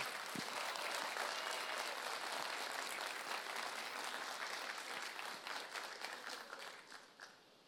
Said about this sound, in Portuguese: Você pode aplaudi-lo nessa manhã?